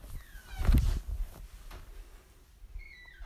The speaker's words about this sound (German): Sie macht gruselige Geräusche mit der Tür.